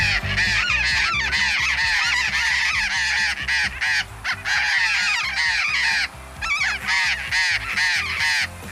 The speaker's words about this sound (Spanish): Me parece escuchar, es que hay tanto ruido de pajaritos,